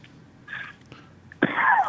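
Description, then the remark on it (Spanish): Two coughs from a speaker who has been talking at length, with a short pause between them; the first is a softer, breathy hack, and the second is sharper, louder and rougher, trailing off raggedly. “Ya estoy tosiendo de tanto hablar.”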